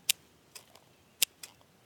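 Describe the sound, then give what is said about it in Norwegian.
Scissors snip slugs as a method of killing them, two pairs of crisp, sharp metallic cuts with short pauses between them, against a quiet background with no voices. “Andre er gift, sneglespisende gjess, salt, syre, nedfrysing, koking og klipping.”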